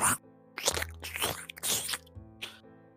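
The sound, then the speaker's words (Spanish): Wet, heavy crunching of a beast nearly a person's size chewing and tearing at something bleeding on the floor of a dark room, in several irregular bursts, with low squelching between bites and no voices. “Ves al fondo de esta habitación oscura cómo se escuchan los crujidos.”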